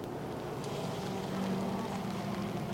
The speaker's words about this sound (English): I can hear the rain falling on your umbrella hat.